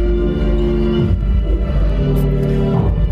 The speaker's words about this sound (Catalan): Si sentiu aquesta música de fons, són les músiques que acompanyen un passatge i no s'acaba mai. Ja ens ho deien, eh? són uns 500 metres de passatge.